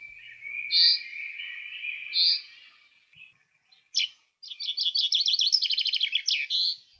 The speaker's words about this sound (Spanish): los 30 decibelios del canto de los pájaros del que nos hablaba César, como este que vamos a escuchar ahora